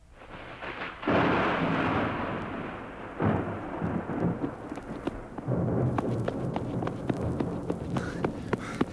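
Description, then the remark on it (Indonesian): Deep rolling thunder before a storm rumbles in loud, sustained waves, swelling and fading several times, with a sharp crackling patter like rain joining in during the last few seconds. No one speaks. “Sekarang, coba dengarkan Chris yang baru pulang dari universitas dengan tergesa-gesa karena akan ada angin ribut, mengatakan sesuatu kepada ibunya.”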